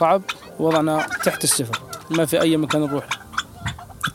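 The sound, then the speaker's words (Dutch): Chickens and turkeys cluck and gabble in a busy, overlapping stream of calls, with a few voices mixed in among the birds; the turkeys roam about and drink from a tub of muddy water. “Verder zie ik een aantal geiten, wat kalkoens, een paar kippen.”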